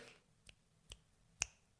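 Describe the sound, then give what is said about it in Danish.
Three crisp finger snaps made with the right hand against a quiet background: two lighter clicks about half a second apart, then a sharper, louder final snap. No one speaks. “Og der er også et knips fra højre hånd her.”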